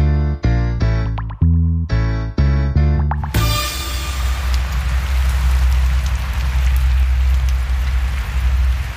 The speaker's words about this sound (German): Also ich weiß ja nicht, wie sehr ihr das hören könnt. Aber es hagelt. ich stehe hier klitschnass äh, in, unter einer kleinen Einfahrt unter, aber es hagelt.